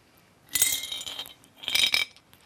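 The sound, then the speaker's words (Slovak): Small stones, some sharp and some worn smooth, rattle and clink inside a jug used as a prop, in two short shaking bursts, bright and clattery with a hard, gritty edge, separated by a brief pause. No one speaks. “Áno, je to vlastne džbán, e, ktorý symbolizuje Samaritánku, ale paradoxne nie je plný vody, ako by sme očakávali, ale sú v ňom prítomné”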